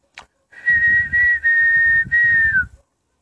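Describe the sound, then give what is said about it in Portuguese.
A person whistles a bird song, a steady, clear tone held in several connected phrases with brief breaks, ending in a slight downward slide, with breathy low noise underneath and no talking. “aqueles outros passarinhos que cantavam.”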